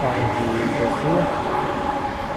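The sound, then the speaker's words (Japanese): A steady, loud rumble of a passing train, broad low-frequency roar with faint tonal whine, continuous throughout with muffled voices underneath, on Friday night, 17 March 2023, around 9 pm, in light rain, where trains pass frequently. “ちょっと電車がうるさいと思います。”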